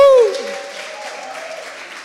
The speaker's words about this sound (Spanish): Aplauda fuerte al rey, vamos.